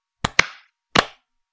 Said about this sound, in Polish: To teraz tak, musimy zaklaskać dwa razy i zrobić takie klask, klask na 3-4, dobra?